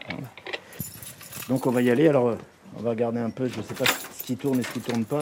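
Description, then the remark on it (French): Keys jingle and clink in bright metallic bursts as a door to a printing works is unlocked, while a man talks over the rattling throughout. “Je vous ouvre.”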